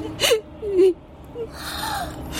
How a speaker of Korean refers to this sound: 어머머, 아 지금 우는 거야? 응? 울긴 누가 울어요?